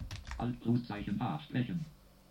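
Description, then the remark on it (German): A few quick keyboard key presses click, pressing Alt+1 for keyboard help and then the hotkey Alt+H in the EasyWave program, mixed in with a steady, synthetic-sounding JAWS screen reader voice that talks throughout the short moment. “Und gehen wieder auf den Bearbeiten-Schalter, drücken jetzt mal die Tastaturhilfe mit Alt Ziffer 1 und drücken jetzt den Hotkey Alt H.”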